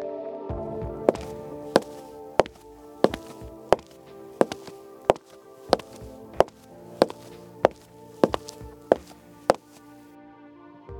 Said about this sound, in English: Soft footsteps exited the room, hard steps entered.